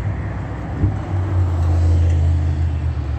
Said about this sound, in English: Um, an Amtrak vehicle 46357. It's the number on the top of that coach vehicle that's uh, crossing path driving west on Holt Boulevard right now at 8.32 a.m.